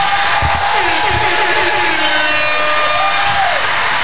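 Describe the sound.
An audience applauds and cheers loudly for about four seconds for the woman who hosted the birthday event, a dense, steady roar of clapping and voices with rising and falling whoops and whistles cutting through it.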